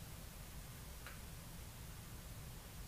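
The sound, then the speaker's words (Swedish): A fan runs steadily with a constant low whooshing hum, filling the room evenly without change; a single faint tick sounds briefly partway through. “Du hör fläkten just nu utan att fokusera på den.”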